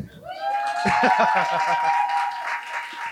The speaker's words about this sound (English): Applause, please.